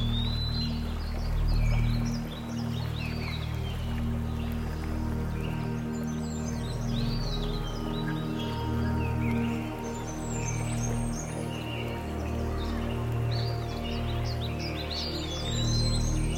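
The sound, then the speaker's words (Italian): Steady rushing water from a nearby stream fills the woods, with small birds chirping and tweeting now and then in the background. No one speaks. “prova adesso ad espandere il tuo ascolto verso i suoni del bosco e del ruscello vicino a te.”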